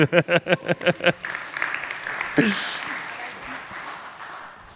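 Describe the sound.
A quick run of rhythmic voiced bursts gives way to a steady wash of audience applause, a dense crackle of many hands clapping that holds at moderate loudness and slowly thins toward the end.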